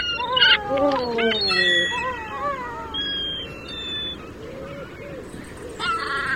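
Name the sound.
bird call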